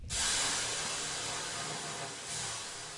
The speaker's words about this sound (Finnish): Sitten heitetään löylyä.